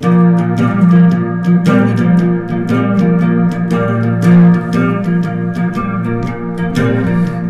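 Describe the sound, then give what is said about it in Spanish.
A clean, twangy homemade three-string electric guitar plays a bluesy riff alone in San Javier de Loncomilla, without a distortion pedal, with repeated plucked notes and ringing sustained tones, loud, without any voice. “Mira, voy a interpretar para que escuchen un poquito de blues, cómo suena esto, sin, sin distorsionador, sin, sin nada suena más o menos así.”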